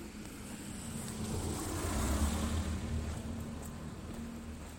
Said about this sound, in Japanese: 車だ